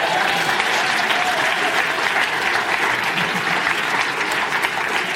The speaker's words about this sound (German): Wer will einen Applaus da.